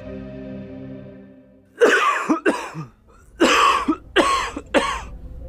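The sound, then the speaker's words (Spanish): A man's dry, hacking, persistent cough, unlike the cough his medication caused, comes in two fits: two harsh bursts, a short pause, then three more, loud against a faint steady tone that fades out beforehand. “A los pocos días mi papá empezó a toser. Era una tos distinta a la que le provocaba su medicamento. Esa tos era seca y no le paraba.”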